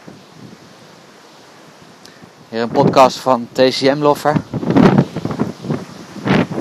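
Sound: strong wind blowing outdoors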